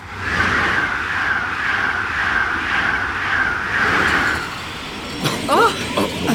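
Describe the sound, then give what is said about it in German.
An Intercity Express train, the Wilhelm Konrad Röntgen, slows to a halt, heard from its dining car: a steady rolling rumble with a sustained high brake squeal for about four seconds, then the noise drops away and a few brief squeaks follow. “Zug hält.”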